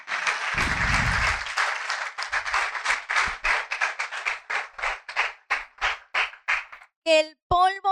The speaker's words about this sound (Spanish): Dale un aplauso a Él en esta mañana